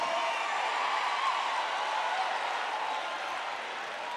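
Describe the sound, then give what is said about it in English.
A crowd claps steadily, a dense wash of many hands at an even, fairly loud level that fades slightly toward the end, with no voices. “And you better learn how to clap for your.”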